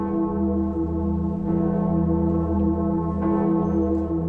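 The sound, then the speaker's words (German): The Gloriosa, the huge great bell of Erfurt Cathedral in Germany, hums with a sustained deep low tone and rich, layered overtones, swelling slightly as it rings on continuously, loud with no voices. “Aber nun, nach unserer Reise nach Valencia, kommen wir doch noch nach Deutschland zur Königin der Glocken im Dom von Erfurt, die Gloriosa.”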